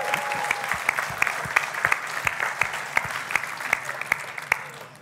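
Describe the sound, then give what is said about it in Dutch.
A crowd claps steadily throughout, dense overlapping handclaps forming a continuous wash with sharper individual claps popping out, sustained at a moderate level with no talking. “Laten we die jongens een applaus geven.”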